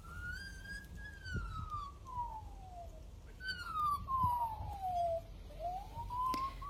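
A magpie in New South Wales, Australia, mimics an emergency siren, whistling clear, rising and falling wails that slide up and down over a few seconds, loud, with faint low background rumble.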